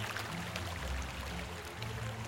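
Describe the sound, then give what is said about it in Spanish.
Water splashing and churning steadily for a couple of seconds as a child falls into a deep pond while reaching for a toy boat, a dense rush with no distinct single impact and no voices. “Al estirarse para alcanzar su barco de juguete, el niño se cayó al agua.”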